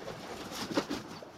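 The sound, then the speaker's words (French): Cory's shearwater calls on a moonless night in the grey granite crevices of the Lavezzi Islands, off southern Corsica: a couple of short, moaning, baby-like wails rising out of a steady hiss of background noise, moderately loud. “Ce que vous avez peut-être pris pour des gémissements ou des pleurs de bébé sont les cris du puffin cendré.”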